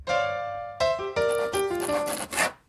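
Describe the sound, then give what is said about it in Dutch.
Building renovation noise: a series of loud rasping, sawing-like strokes with a whining, shifting tone, four or five bursts in quick succession with no one talking. “Terwijl hier op de achtergrond eh, de verbouwing veel doorgaat.”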